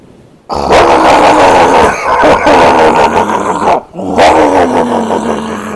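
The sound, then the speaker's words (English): A boat engine bursts into life with a loud, rough, growling roar that holds steady, drops out briefly for a moment, then surges back at full strength. “Okay, I'm starting the engine now.”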